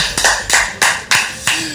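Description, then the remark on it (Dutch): A short burst of applause: about five sharp, evenly spaced claps ring out loud in a steady rhythm, with no voices over them. “Applaus, dames en”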